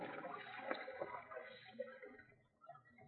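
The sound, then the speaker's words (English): Small waves lap softly against rock on a lake in a cave, a continuous gentle sloshing and gurgling with irregular little splashes, fairly faint and echoing. “It's it's like a lake. Or maybe a sea. There's little waves.”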